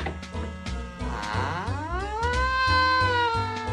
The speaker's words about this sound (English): The door creaked.